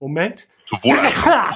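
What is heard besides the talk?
sneeze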